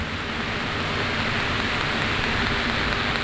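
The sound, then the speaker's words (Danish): The sound installation Vibrant Disturbance, 200 loudspeakers spread across the floor, each with its own light sensor and amplifier and linked by a net of thin black cables, fills the air with a steady, dense wash of hissing crackle, like heavy rain, holding an even loudness throughout with no voices. “Det består af 200 forskellige højtaler med hver sin lyssensor og forstærker.”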